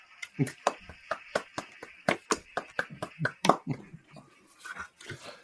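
A clapping sound effect built into a new platform's soundboard: a quick run of sharp, crisp hand claps at a fairly steady pace, loud at first and thinning out toward the end, with a faint hiss underneath.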